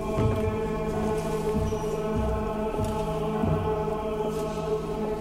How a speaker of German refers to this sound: In der Kirche hört man Schritte, die von draußen reinklingen.